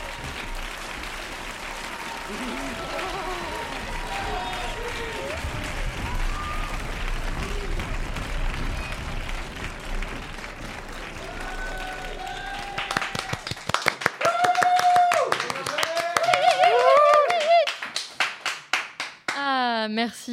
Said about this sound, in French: Et surtout, merci pour ces légendaires applaudissements qui nous manquent tant.